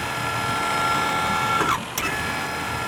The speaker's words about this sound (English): the winches were making a terrific noise